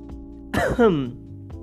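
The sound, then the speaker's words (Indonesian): A single rough cough with a voiced, throaty tail, lasting about half a second against a quiet background hum. No one speaks. “Batuk, guys.”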